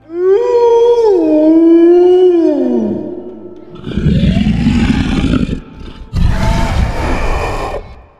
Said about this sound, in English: As the darkness falls, you start to hear howls in the distance, shrieks, roars.